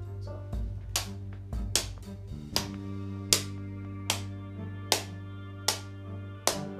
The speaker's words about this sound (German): So erzeugten sie auch mit ihm Feuerstein, das Feuer. Also, sie haben da wirklich so Feuerstein, so klack, klack, klack.